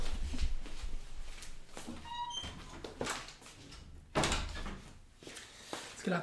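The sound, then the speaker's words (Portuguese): A door creaks open with a short squeaky hinge, followed a couple of seconds later by a solid thud as it shuts, amid handling clatter and room noise. “e fecha ali a outra.”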